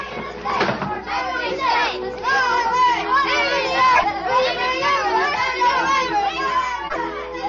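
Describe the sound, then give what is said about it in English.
A crowd of children's voices outdoors on Baker Street on a foggy, cold day, laughing, calling and singing over one another in a steady, lively jumble of high-pitched sound that carries on without pause throughout. “From outside, we could hear the sound of voices laughing and singing.”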